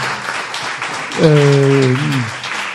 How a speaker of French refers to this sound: Merci, on peut les applaudir. Alors les éducateurs, les psychologues, les enseignants ici à Combourg.